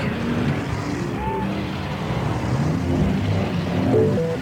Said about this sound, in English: Let's build a city. We'll need a lot of people and buildings. And traffic.